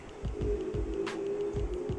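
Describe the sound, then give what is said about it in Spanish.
Muffled noise of a busy street heard from inside a home during the COVID-19 pandemic, a steady low hum with rhythmic engine-like throbbing and a brief hiss partway through, with no one speaking. “en mi casa y está un poco movimentada la calle a pesar de estar eh, con la pandemia del COVID-19.”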